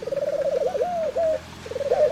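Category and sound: vocal imitation, voice imitating pigeon cooing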